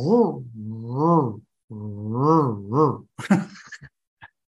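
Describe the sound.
A man's voice mimics a car engine straining to start, with three or four rising-and-falling groaning cranks followed by a few breathy sputters that die out. Fairly loud, with nothing else around.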